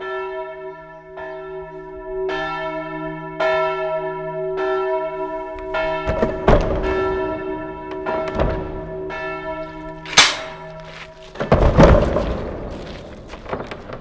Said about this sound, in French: Vous entendez là juste à l'instant qu'en fait on est en train de faire entrer l'air dans les tuyaux les quelques milliers de tuyaux qui sont dedans. L'air vient de rentrer, il s'arrête. Voilà.